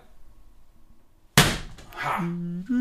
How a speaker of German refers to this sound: So, es hat einmal geknallt, das war eine Mücke, Entschuldigung.